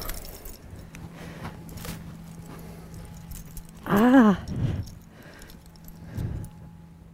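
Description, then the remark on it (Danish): Intermittent metallic clinks and scrapes as a bottle cap is pried open with a key, with a person briefly exclaiming partway through. “Men øh, har du noget at åbne med? Det kan jeg finde. Okay. Jeg har en nøgle.”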